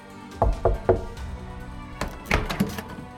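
Three quick, evenly spaced knocks on a door, dull and solid, followed after a pause by a cluster of heavier thumps and rattling, like the door being handled.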